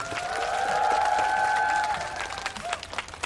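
An audience applauds with dense, steady clapping and a sustained ringing tone over it, then the clapping thins into scattered individual claps and fades out.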